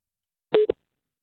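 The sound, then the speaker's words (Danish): A short electronic telephone tone on an outgoing call from a radio program to the firm Citrus Media: one brief steady beep, then a quick clipped blip, clear with no voices around it. “Ja, man kan sige, de ved jo ikke, at vi, øh, vi ringer”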